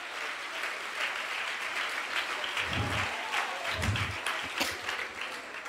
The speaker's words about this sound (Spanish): Si le va a dar el aplauso, si se lo va a dar.